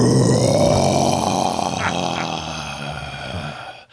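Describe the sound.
A person voices the deep, rough, sustained growl of a very large Yeti, a Yeti Alpha, approaching from below; loud, rumbling steadily for about four seconds before cutting off abruptly.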